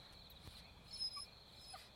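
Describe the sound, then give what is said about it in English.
A puppy whimpers softly with thin, high-pitched whines, a few brief rising cries breaking through a low background hum. It sounds faint, with no one talking. “Oh, is he gonna cry like that the whole time?”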